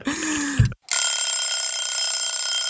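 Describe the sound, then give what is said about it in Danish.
A loud bell rings steadily and continuously for about two seconds, bright and metallic, right after a short burst of another brief sound and a moment of silence. “Og det, I hørte der, det var simpelthen sponsklokken, fordi jeg lige afbrød episoden her for at knytte nogle ord til dagens sponsor.”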